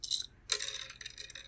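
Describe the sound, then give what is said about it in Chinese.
Four dice rolled at once in a board game rattle and clatter: a brief burst of bright clicks, a short pause, then a longer, louder run of rapid clattering taps that gradually thins out as the dice settle. “好，那接下来我们就要一次骰四颗骰子，对，因为接下来就正式开始。”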